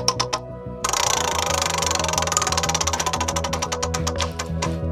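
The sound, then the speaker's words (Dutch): A prize wheel spun to pick a year, landing on 1977, gives off a rapid, steady run of sharp clicks that gradually spread out and slow toward the end, with a low humming tone underneath and no talking. “Nou, we, zullen we vast een slinger geven aan het rad? Kom op met het rad.”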